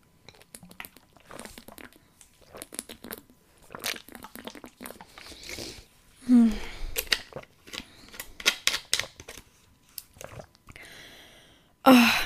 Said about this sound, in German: Damit ihr mich auch fein trinken hört, erstmal geprüft, ob hier das Aufnahmeding noch weiterläuft. Eine Zeit lang hatte ich ja immer einen schönen Wackelkontakt. Ah. Schön stilles Wasser. Prost.